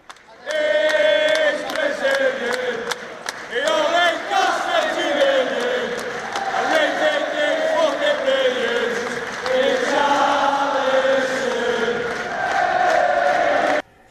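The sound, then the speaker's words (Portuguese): A large crowd of Everton football fans chants a melodic song in unison for their player Richarlison, singing that he only cost 50 million pounds. The chant is loud and sustained for about fourteen seconds, with the voices rising and falling in a steady repeated tune. “Então vamos ouvir a, ah, o canto”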